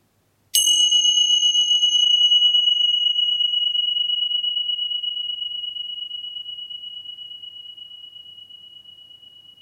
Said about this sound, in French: La cloche va sonner, juste pour attester qu'il y a un changement.